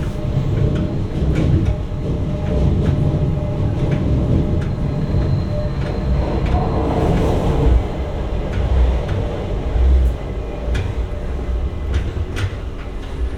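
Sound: train riding on rails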